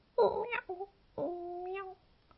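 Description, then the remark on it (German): A person imitates a cat, giving two drawn-out, wavering meows with a brief pause between them, fairly loud, with no other talking, while rounding their back in the cat pose of a yoga cat-cow exercise. “Zuerst kommst du in den Katzenbuckel, machst deinen Rücken ganz rund und umjaust wie eine Katze.”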